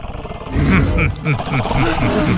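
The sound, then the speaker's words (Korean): A chorus of deep, overlapping dinosaur roars and growls rumbles continuously and loudly, like a herd of dinosaurs bellowing together for a couple of seconds. “또, 공, 또 공룡대 거지 아니야? 공룡대다.”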